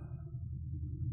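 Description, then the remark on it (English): A race car passes on a racetrack with a steady, deep rumble, heavy low-end booming with little high-frequency detail, holding at a constant level for about a second with no voices. “Can you hear the car? That's um, that's the sound you hear. That's boom boom cars all day.”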